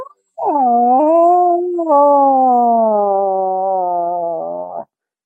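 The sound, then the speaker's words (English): A person imitates a cat in heat, letting out one long, loud, wavering yowl that rises, briefly breaks, then slowly sinks in pitch over about four seconds before cutting off. “I've got a cat in heat sound and i did it which i will do for you right now because it's pretty impressive”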